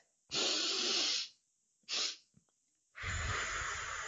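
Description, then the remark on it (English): Two breaths drawn in through the nose, a long maximal one as deep as possible then a short top-up to fill the lungs, followed after a pause by a long, steady exhale blown out through the mouth. No talking. “Then I am going to have a very long exhale through my mouth.”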